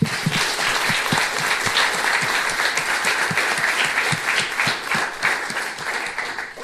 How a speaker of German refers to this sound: Dankeschön, Applaus!